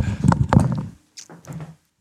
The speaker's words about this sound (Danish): Nu lukker han heller ikke døren ordentligt.